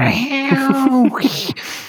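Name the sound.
person imitating a cat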